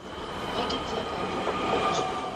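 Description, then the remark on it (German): A train rolls along the tracks of the extensive track system at Aachen West station (Aachener Westbahnhof), with a steady, broad rumble, faint metallic clicks and high whining tones rising now and then over the continuous noise. No voices. “Hier verkehren aber nicht nur Güter- oder Personenzüge.”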